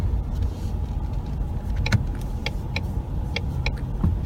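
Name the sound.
car being driven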